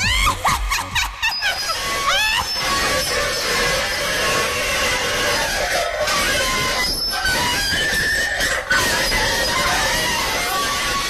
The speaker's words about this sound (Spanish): ¡Sí! ¡Bailen esto! ¡Bailen mientras raspo este tenedor por el fondo de un plato de lata!